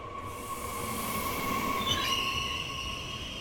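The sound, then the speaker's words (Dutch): A train pulls into a station platform with a steady rumble, its wheels letting out a sustained high metallic squeal that rises and shifts near the end as it slows. “Vanaf het perron sta ik er al naar te kijken als de trein binnenrijdt.”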